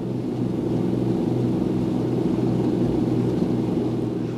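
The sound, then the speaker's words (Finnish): A steady, loud drone of piston-engine propeller aircraft delivering 8,800 horsepower, with layered harmonic engine and propeller tones resonating together in a continuous low rumble, unbroken throughout. “Moottorien ja potkurien keskenään resonoiva ääni oli todellakin upea.”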